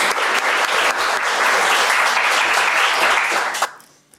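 A crowd applauds loudly and steadily to welcome a guest, a dense wash of many hands clapping at once, holding strong for several seconds before quickly fading out at the end.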